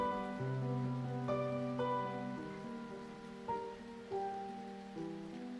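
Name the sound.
rain falling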